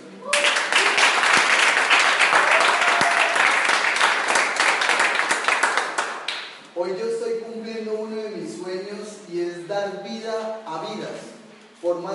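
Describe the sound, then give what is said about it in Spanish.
An audience breaks into loud, sustained applause for the San Luis local leadership table that made the event possible, a dense crackle of many clapping hands for about six seconds, which then stops abruptly as someone begins speaking. “Y quiero que le regalen un fuerte aplauso porque gracias a ellos es posible este evento.”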